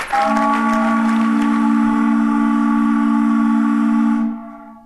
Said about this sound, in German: Das längste Nebelhorn der Welt.